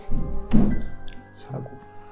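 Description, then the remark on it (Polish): One heavy, low door thud lands sharply and then dies away, with a softer knock following and faint voices murmuring in the background. “Te takie coś to są drzwi pewnie.”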